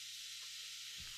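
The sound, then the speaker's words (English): An apartment radiator's steam release valve hisses as it releases built-up steam and hot water pressure, in a steady, airy stream that doesn't let up, fairly soft, with a faint low hum underneath and a brief dull bump near the end. “it takes a while for the steam valve to stop doing its thing”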